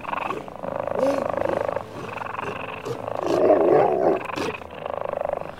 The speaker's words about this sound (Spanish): Y me quité el disfraz, me puse mi corona de racimos en la cabeza y acudieron a mi llamada mis panteras, tigres y linces.